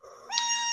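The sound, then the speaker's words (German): A mobile phone ringtone for an incoming call starts up abruptly, a steady electronic tone with bright layered harmonics that holds for its brief stretch, with no one speaking. “Das war mein Handy. Der, ich habe hier einen Anruf.”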